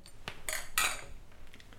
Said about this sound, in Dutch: Ja, jongens, dan eh, gaan we de beach naar het midden brengen, denk ik. En gaan we klinken.